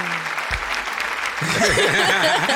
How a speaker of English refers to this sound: Let's get a hand clap for that one.